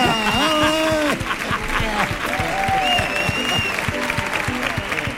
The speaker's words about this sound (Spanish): recibamos con un fuerte aplauso a Mark Lenders